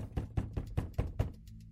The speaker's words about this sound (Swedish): plötsligt bankar det på dörren.